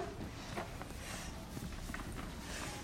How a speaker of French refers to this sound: Lièvre et souris entendent des bruits de pas et une voix.